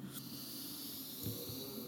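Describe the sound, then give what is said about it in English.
A long, deep inhale drawn in steadily through the mouth or nose during a guided breathing exercise, an airy hiss that fills the whole moment, fairly soft, with no talking. “And then on this last one, if you want, you can make some noise. Breathing in,”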